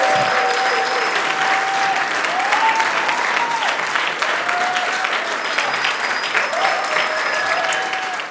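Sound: audience applause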